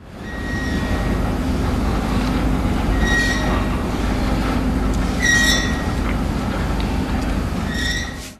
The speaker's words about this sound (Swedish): Det börjar väldigt snyggt med den här gnisslande lampan som åker fram och tillbaka och det känns verkligen hela världen gnisslar.